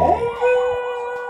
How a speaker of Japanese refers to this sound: まあライブなのでこういうことも起きると、えー、救急車が通り東一郎君が遠吠えをするというねことで、えー、まあこれこのまま乗っけちゃいますけれどもえー、余計なところで緊急車両が来ましたが、